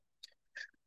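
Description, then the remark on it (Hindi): Two quick sneezes in succession, each a short hissy burst, the second slightly stronger and longer. Fairly faint and heard on their own with no talking. “God bless you”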